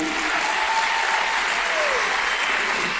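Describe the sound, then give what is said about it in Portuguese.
An audience claps steadily for a few seconds in applause for the sound crew, a dense, even wash of applause that holds at a constant level throughout without individual claps standing out. “Uma salva de palmas para esse pessoal do som.”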